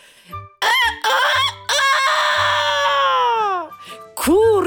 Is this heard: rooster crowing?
yes